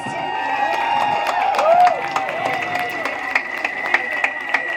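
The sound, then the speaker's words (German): Steady crowd applause at the close of a rally, with scattered sharp claps and a few whistles and cheers rising over the dense clapping, holding at a fairly even level throughout. “Einen großen Applaus nochmal an euch alle.”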